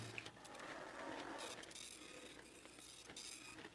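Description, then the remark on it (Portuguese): A printer runs steadily, a soft mechanical whir broken by repeated clicks and ratcheting ticks from the moving parts, fairly quiet and heard on its own without any voices. “A impressora tá no ar aí, ó.”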